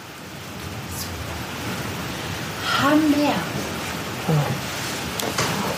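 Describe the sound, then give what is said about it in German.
A steady, broad roar of water rushing through a canal lock just below fills the background without a break, while a voice speaks briefly over it near the middle. “Und was hier so rauscht, das ist die Schleuse unten.”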